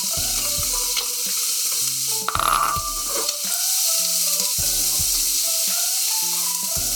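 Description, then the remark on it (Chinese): Seafood is added to a very hot, well-oiled wok and fries with a steady crackling sizzle, flaring into a louder hiss about a third of the way through as it is stirred, while a light melodic tune plays underneath. “好，这时候锅子很油，这时候锅子很烫，加入我们的海鲜。”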